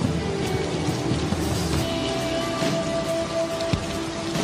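Steady rain falls continuously, a dense patter of drops with a low thunder rumble underneath. No voices, just the even wash of the downpour throughout.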